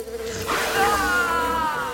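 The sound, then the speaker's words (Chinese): A buzzing bee sound effect drones steadily for two seconds as a pumpkin bee robot appears behind a character, ready for a sneak attack. It is a continuous insect-like hum that swells louder partway through and then holds, with no talking over it. “要靠近倒地的南瓜巨龟兽的时候，突然间，QQ 力霸王的背后出现了南瓜蜜蜂机器人，准备偷袭过去。”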